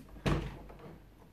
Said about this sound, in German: Da hat schon wieder geklopft.